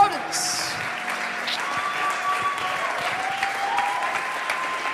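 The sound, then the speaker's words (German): Sustained audience applause, a dense steady wash of many hands clapping at even loudness throughout, with faint tonal music or a held note running underneath, as the audience stands and applauds a woman coming onto the stage. “Lass uns mal aufstehen und ihr einen fetten Applaus geben, während sie auf die Bühne kommt.”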